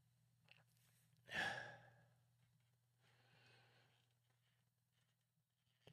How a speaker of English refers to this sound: I'm not trying to breathe funny, y'all. I'm trying not to be heard on the microphone. My compression is a little high and I can hear myself breathing and it sounds weird, so I'm trying to hold my breath.